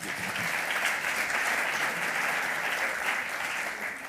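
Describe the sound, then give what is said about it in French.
Steady audience applause, a dense crackle of many hands clapping at once that holds a fairly even level for about four seconds, with no voices standing out above it. “Oui, je pense qu'on peut l'applaudir aussi.”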